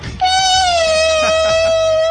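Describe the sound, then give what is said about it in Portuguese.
A voice imitates a Formula 1 car with paper in the mouth, making a loud, buzzy whine through the lips that holds a nearly steady high pitch for about two seconds, sagging slightly, with no talking. “Era um carro de Fórmula 1 com papel na boca.”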